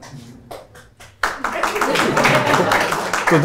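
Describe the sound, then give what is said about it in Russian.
A few scattered hand claps ring out, then a room full of people breaks into sustained, fairly loud applause that continues to the end, with some voices mixed in. “Или похлопать можно, да, похлопать нормально.”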